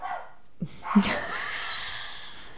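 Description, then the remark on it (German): A dog gives one or two short, sharp barks, followed by a lingering hiss of background noise; no one speaks. “Die Hunde mögen kein Yoga und Pilates.”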